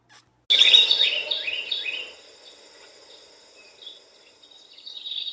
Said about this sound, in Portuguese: Os passarinhos.